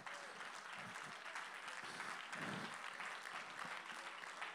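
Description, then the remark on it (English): An audience claps hands to magnify the Lord in a steady, dense wash of applause that holds at an even level for several seconds, with no voices standing out above it. “Why don't somebody just clap your hands and magnify the Lord?”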